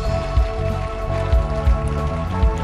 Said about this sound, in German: Lass uns mal Jesus einen Applaus geben, dem Retter, dem König. Amen.